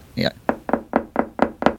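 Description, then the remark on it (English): Rapid, evenly spaced knocking on a wooden door by two people knocking together, about seven firm raps, following a brief vocal sound at the start. “Let's yeah. knock together.”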